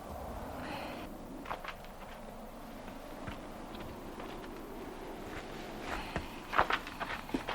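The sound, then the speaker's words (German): Soft, cautious footsteps of two detectives sneaking after two accomplices into an empty hall inside a ruin shuffle and crunch at an uneven pace, with a faint steady rumble beneath and a few sharper scrapes at the end. “Justus und Peter schlichen hinterher.”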